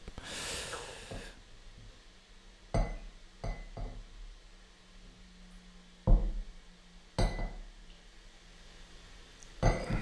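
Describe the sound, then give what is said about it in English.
Several sharp glassy clinks ring out at irregular intervals against a quiet background, with a soft breathy rush at the start, like drinking glasses being handled and set down. “Yeah, it's the the first glass of the day.”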